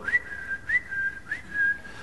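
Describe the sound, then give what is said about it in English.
A person whistles a short, bright repeating tune, a few quick rising notes that mimic a FaceTime call tone, clear over faint background noise. “And uh, uh, you, when you FaceTime, you hear a little”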